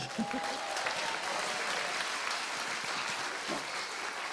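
A crowd applauds steadily, a dense wash of clapping hands that holds at an even level for several seconds without any talking over it.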